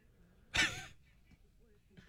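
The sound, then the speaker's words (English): A duck mimicking its owner's speech, saying "You bloody fool": one short, raspy, breathy voice-like burst rises abruptly, then fades into near silence, with a faint soft sound just before the end. “So this is the duck who was mimicking his owner. The duck is saying, You bloody fool.”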